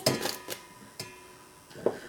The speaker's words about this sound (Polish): I tak, e, pół szklanki rodzynek możemy na już tylko odmierzyć i przerzucam sobie do miski.